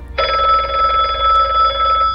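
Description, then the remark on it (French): A telephone bell rings loudly, one continuous trilling ring lasting about two seconds with no voices, then cuts off; the call is from a grandmother wishing to speak to her granddaughter. “Or, voici ce qui se passa un matin quand Julia, la maman de Bonnie, lui dit que sa grand-mère était au téléphone et souhaitait lui parler.”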